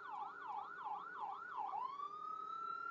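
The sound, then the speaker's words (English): A loud siren from a passing stroke-team ambulance, warbling in quick repeated swoops before switching to a long, steady rising wail, with a low rumble of traffic underneath and no talking. “So don't mind the ambulance. They're going past me quite loudly.”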